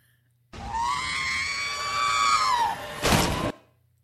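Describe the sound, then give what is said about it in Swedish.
R2-D2's shrill electronic robot scream, a sustained harmonic wail that bends slightly in pitch for about two seconds, then ends in a short burst of harsh noise. Loud and alone, no talking. Used as the sound heard when bending a phone. “R2D2s skrik där. Det kan vi försöka Nej, lägga in här eh, emellan.”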